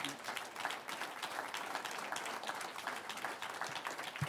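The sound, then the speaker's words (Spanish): Steady applause from an audience, a dense crackle of many hands clapping at once that holds an even loudness for several seconds with no voices over it. “Un aplauso al que vive.”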